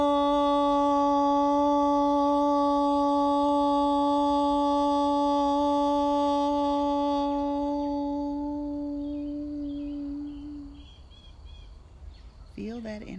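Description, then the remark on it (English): After a deep breath in, a group of voices chants a long, sustained OM in unison to end a guided breathing session, a steady low drone with rich overtones that holds for about ten seconds before fading, followed by faint chirpy sounds. “We'll take a deep breath in and we'll end with the tone OM.”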